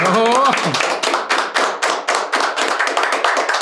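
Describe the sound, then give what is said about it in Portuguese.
A short burst of voice gives way to a round of applause, steady, rhythmic hand claps repeating quickly and fairly loudly for about three seconds. “Uma salva de palmas.”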